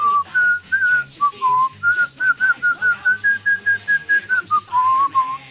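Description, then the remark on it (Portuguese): A person whistles a bright, wavering melody of many short notes in quick succession, fairly loud, mimicking a gorilla whistling, with no talking over it. “Aí é, eles falam, não, não, eu tô levando o, o gorila pra dar um passeio, aí o gorila sai subiando, né?”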